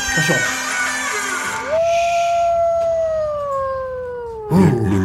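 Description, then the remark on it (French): A loud, sustained microphone feedback howl, caused by headphones passed in front of the microphone, rings out as a steady whistling tone that drifts slowly lower over about three seconds, framed by brief rougher, noisier bursts at the start and end. “Tu passes ton, tu passes ton casque devant le micro, ça fait bouh. T'écoutes du désert rock et tu veux faire du Larsen.”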